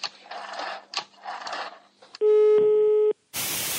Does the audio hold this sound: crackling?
yes